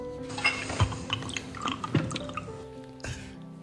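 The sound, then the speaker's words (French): Tea is poured into a cup, a soft liquid trickle broken by several distinct drips and splashes over a few seconds, with no voices. “Je vais faire du thé.”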